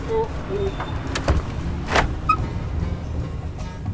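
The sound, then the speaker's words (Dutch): A door swings shut with a short, solid thud about halfway through, preceded by a softer knock, over a low rumbling background with faint indistinct voices. “Ja, nou, ja, doe de deur maar dicht dan.”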